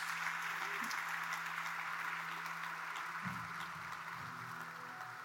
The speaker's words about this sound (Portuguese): Quem recebe, diga amém em nome de Jesus. Quem recebe, dê um aplauso dessa manhã em nome do Senhor Jesus.